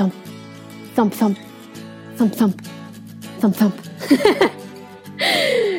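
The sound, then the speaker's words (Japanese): A voice mimics a heartbeat with hummed double pulses, 'thump-thump' pairs repeated about four times at a steady pace, given as a hint in a quiz on English sound words, then speech begins at the end. “これは心臓の音ですね。”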